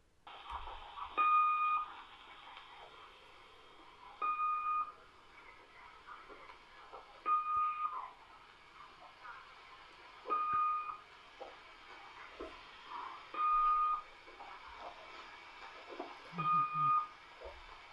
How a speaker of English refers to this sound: To show you what I mean, I'll play a segment of a number station that demonstrates just this. And if the sound is bad, I will edit in a clip of the recording so that our listeners can hear it better. But this uh, this is a bona fide number station.